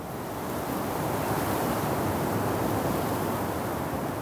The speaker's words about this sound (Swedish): Det går höga vågor. Båtarna slår mot varandra. Ljudet av trä mot järn.